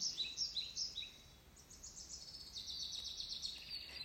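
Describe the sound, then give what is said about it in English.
Soft birdsong fills a forest on a cool, sunny day with a gentle breeze stirring the leaves. Several birds chirp and trill in quick, overlapping high phrases over a faint, steady outdoor hush. “Listen to the sounds of the forest.”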